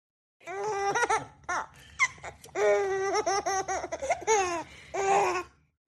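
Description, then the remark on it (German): A baby giggles and squeals in bursts of high, bright laughter, clear, with short pauses between the excited peals and no other voices. “Das Lachen eines Babys.”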